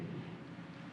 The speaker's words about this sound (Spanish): Ahí está lloviendo